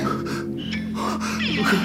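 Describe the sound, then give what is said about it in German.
A man with chest pain gasps and pants heavily for breath as he lands on the floor and curls up, with strained, voiced breaths running together for a couple of seconds, ragged and urgent. “Er landet keuchend auf dem Boden, kauert sich krampfhaft zusammen.”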